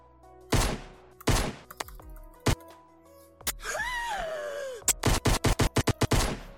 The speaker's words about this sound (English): That one was real though. You actually just shot your boss. Now you're running from the cops. Why do I keep hitting the same sound effect?